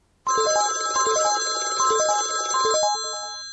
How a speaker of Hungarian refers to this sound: Ébresztés emlékeztetésének módja csak csengetés. Ez ugye a gyári csengő hang.